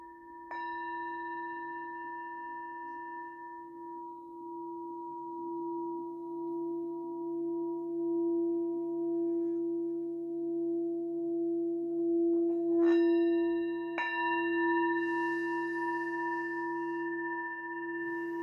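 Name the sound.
tibetan singing bowl ringing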